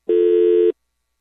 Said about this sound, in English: sorry about that. We're having some phone issues if you hear the dial tone.